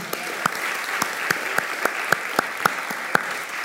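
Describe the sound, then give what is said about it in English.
An audience at a church service applauds a man steadily, a dense wash of clapping with a few louder, sharper claps standing out at an even, regular beat on top. “Could we applaud him?”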